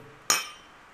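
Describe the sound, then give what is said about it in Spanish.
A single bright clink of beer glasses touching in a toast, sharp, with a shimmering ring that fades quickly into quiet. “Y bueno, pues de todos modos. Salud.”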